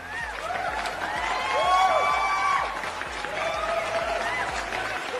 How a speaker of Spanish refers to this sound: aplausos para mí, ¿eh? porque yo ando con las frases a todo lo que da